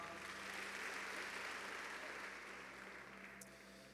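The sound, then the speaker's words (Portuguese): An audience applauds loudly, a dense wash of many hands clapping at once that holds steady for several seconds before easing off slightly at the end. No one speaks over it. “Dê um aplauso bem forte, pode se assentar.”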